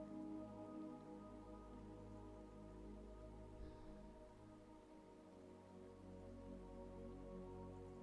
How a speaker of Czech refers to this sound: Všimneš si, že mítinou protéká malý potůček. Šumění vody tě pomalu uklidňuje.